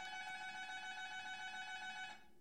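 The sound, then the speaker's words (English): An apartment intercom buzzer sounds once, a single harsh, steady electronic buzz that holds for about two seconds and then cuts off abruptly, with no one speaking. “See, now I don't know if that was like, you know, one of my neighbors who needs someone to buzz in their Amazon package or if my lobby is going to get looted again.”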